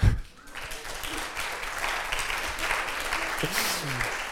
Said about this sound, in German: Ich habe nämlich schon einen Applaus